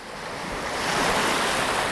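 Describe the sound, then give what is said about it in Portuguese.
Ocean waves wash continuously onto a beach, a broad steady roar of surf that swells slightly louder partway through, with a hint of wind and no voices. “Sammy pegou a Amanda pela mão, puxou a ela até ali perto da praia e mostrou um marzão na frente deles.”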